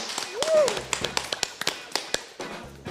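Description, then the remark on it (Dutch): A sparse, irregular smattering of hand claps, a dozen or so sharp hits spread over a few seconds, with a brief rising-falling whistle-like tone near the start, applauding the guests at the end of the programme Via Cultuur. “Ja, een applaus daarvoor.”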